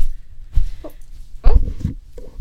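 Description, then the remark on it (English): A dog lets out a few short, sharp barks at a camera, spaced irregularly over a couple of seconds with a low background rumble between them. “She's gonna fucking bark at the camera.”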